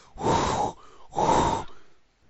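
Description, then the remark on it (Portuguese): Two heavy, rushing breaths blown into a microphone, each lasting about half a second with a short pause between, loud and noisy like someone panting, with no talking. “Você que tá, tá, soprando aí, tá, tá ofegante, você foi correndo buscar água?”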